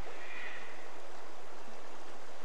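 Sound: flowing river water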